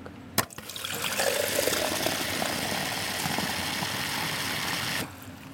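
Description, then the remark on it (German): A sharp clink, then elderflower syrup, one schnapps-glass measure per half litre, pours steadily into a glass in a continuous splashing trickle for about four seconds before stopping abruptly. No voices. “Und da kommt jetzt der Sirup noch rein. Ein Schnapsstamperl auf einem halben Liter.”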